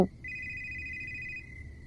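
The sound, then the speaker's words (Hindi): A mobile phone rings again late at night in a single sustained electronic trill lasting just over a second, fairly clear over a low background rumble, then stops. “लेकिन एक छोटे से अंतराल के बाद फोन की घंटी फिर से बजने लगी थी वो कुछ बुदबुदाती बड़बड़ाती कमर सीधी करती हुई फोन उठाने को चल दी थी”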